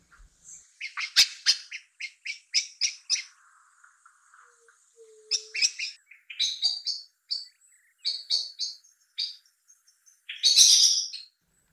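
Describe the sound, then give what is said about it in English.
A blackbird gives a rapid series of sharp, repeated alarm notes, then breaks into fluting, varied song phrases with a harsh chattering burst at the end, clear with no voices. “I've asked Mr. H to put the alarm call and the beautiful song of Blackbird in this tweet of the season”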